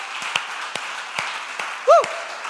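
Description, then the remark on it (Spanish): A church audience, with the children urged to clap loudest, applauds in a steady, dense wash of clapping with a few sharper claps standing out, and a brief rising-and-falling vocal whoop cuts through near the end. “¿Cuántos le dan un aplauso y los niños más fuertes?”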